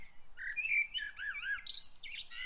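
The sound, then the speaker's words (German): A small bird hopping through herbs chirps and trills in a quick, lively run of high, warbling notes, fairly clear, with no voices present. “Claras Blick folgte einem Vögelchen, das durch ihre Kräutergästen hüpfte.”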